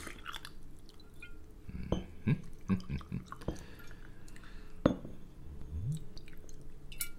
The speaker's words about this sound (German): Was für ein wundervolles Geräusch. Ja, droppe jetzt noch ein kleines Zitronenstückchen ins Glas. Das schadet bestimmt nicht. Und gieße nun mit dem Wermut auf.